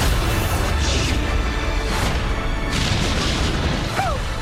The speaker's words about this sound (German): Explosions, flames.